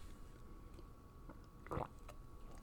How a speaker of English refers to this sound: I'm feeling them a lot, and that's what I'm drinking a nitro cold brew right out of a Starbucks cup. They got these new little lids where you can use them without straws, which I think is cool.